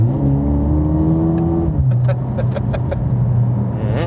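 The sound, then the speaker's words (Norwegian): A powerful Mercedes-AMG sports car engine revs up hard during acceleration, its rising harmonic roar climbing steadily before shifting, with clicking and rattling transients near the end; the engine sound is loud, heard from inside the car. “Her går du unna. Kjør på. Kjør!”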